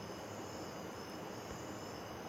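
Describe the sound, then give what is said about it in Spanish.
A steady, soft wash of rushing water from a waterfall in the background blends with a continuous high chirring of crickets, quiet and unbroken, on a calm, windless night at the start of the dry season, recorded from a house terrace, with no voices. “Se oye la catarata en el fondo, los grillos”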